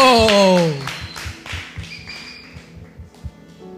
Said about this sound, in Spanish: Ok, un aplauso.